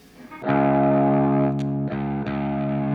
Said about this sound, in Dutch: Ik zal sowieso even laten horen, want volgens mij staat die nou behoorlijk op die middenkanaal in die amp. Dan kan je ook horen wat dat doet.